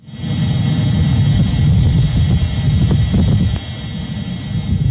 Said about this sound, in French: Mais cette fois-ci, on entend clairement le bruit strident du rover qui avance sur Mars.